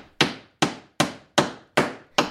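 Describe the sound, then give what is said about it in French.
A hammer strikes a nail six times in a steady rhythm, each blow a sharp metallic knock with a quick decay, no voices present. “De rage, Adjoa planta un clou avec.”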